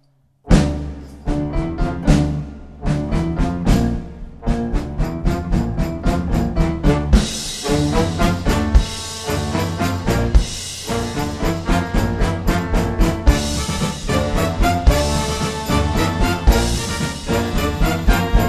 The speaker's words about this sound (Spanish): Ahora, este todo junto, una big band suena así.